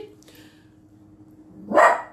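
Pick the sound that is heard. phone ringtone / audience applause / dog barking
dog barking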